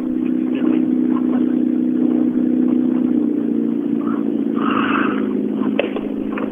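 A Tommy Mäkinen Edition car drives by, its engine a loud, low, continuous drone that holds for several seconds with some faint higher whooshes near the end. No one speaks.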